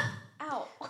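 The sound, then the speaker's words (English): A woman's sudden voiced sneeze bursts out, followed a moment later by a short cough, both abrupt and fairly loud over a faint background hum; she hits herself in the nose while sneezing and coughing. “Whatever she did, she just literally punched herself in the nose while she was sneezing and coughing, sisters.”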